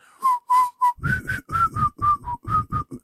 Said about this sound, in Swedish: fy fan vad det lät dåligt nu med dubbelsnus inne. Men... Ja, jag vet. Jag funderar på om jag ska spotta snusen för att kunna vissla här. Jag kan inte vissla med snus.